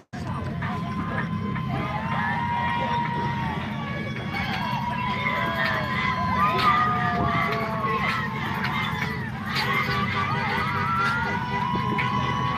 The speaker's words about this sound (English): Just listen to the sound. Lots of excited people in this procession, this parade.